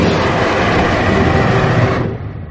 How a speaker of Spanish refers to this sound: Un fuerte rugido azota las paredes de la cueva.